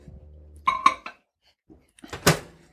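A spoon clinks sharply against a cup three times, then after a pause scrapes and clatters briefly as it stirs thick batter in the cup. No talking.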